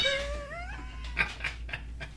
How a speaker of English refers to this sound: what the fuck did you just do to that cat, dude? No, someone's out. A cat's outside making it go crazy.